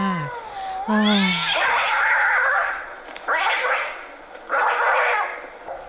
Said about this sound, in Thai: เสียงแมวกัดกันนี้เป็นเสียงที่มีพลังการทำลายล้างอย่างสูงเลยนะคะเมื่อไหร่จะแยกย้ายกันละนี่